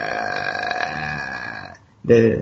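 A long, guttural croaking rattle drones on steady, breaks off into a short silence, then returns as a louder, rougher rasp: the eerie throat sound made by a ghost in a horror film.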